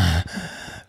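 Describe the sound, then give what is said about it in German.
Heavy breathing: a loud, sharp rush of breath followed by a longer, airy exhale that fades out within about a second, with no talking. “Ah, ich atmest du so schwer.”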